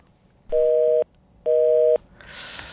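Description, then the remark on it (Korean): Two steady beeps of a telephone busy tone after a disconnected call, each about half a second long with an equal pause between, fairly loud and clear, followed by a soft hiss. “전화가 끊긴 소리예요, 이게.”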